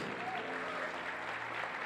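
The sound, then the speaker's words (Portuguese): A church audience from Paulista applauds for Jesus, many hands clapping in a dense, continuous wash of sound with a faint low hum beneath, sustained at an even level throughout. “E você que nos visita, pode aplaudir a seu Jesus.”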